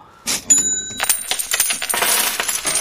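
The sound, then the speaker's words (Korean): Coins clatter and jingle onto a hard surface as a cash drawer is opened at a convenience store, a bright metallic cascade of many small impacts with ringing tones, fairly loud, over about three seconds with no voices. “동전 소리도 나고.”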